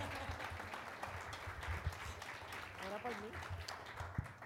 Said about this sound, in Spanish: Un aplauso para mi amada. Ah, amada mía.